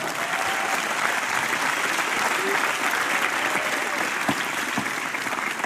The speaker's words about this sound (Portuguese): Salve de palmas